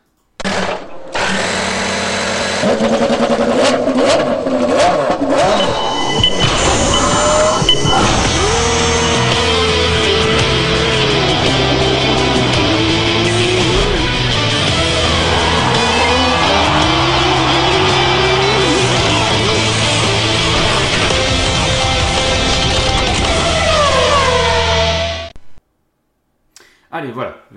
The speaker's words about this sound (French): Si j'arrive à mettre le, générique de l'IndyCar, bien évidemment.